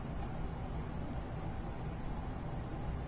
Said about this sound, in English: You are hearing the sound of what sounds like a propeller aircraft.